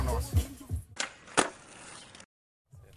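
Skateboard wheels rumble at a skatepark during its opening event, held with the Lidköping skateboard association, then two sharp, loud board cracks from tricks land about half a second apart, followed by steady rolling hiss, a brief silence and more rolling.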